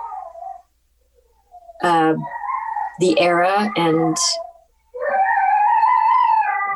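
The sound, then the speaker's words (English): A dog lets out loud, drawn-out whining cries that sound much like a baby wailing, coming in several bursts, with a person speaking briefly in between. “Is that a baby or a dog?”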